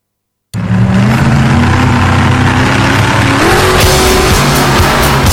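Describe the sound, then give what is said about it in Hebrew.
Loud car engines rev continuously with a rising pitch partway through, while tires squeal and skid over the top, a dense racing roar filling the whole clip after a brief silence. “חממו מנועים, כי כל מה שרציתם לדעת על ג'יפים, מחנאות ושטח בתוכנית אחת.”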